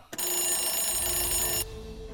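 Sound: alarm clock ringing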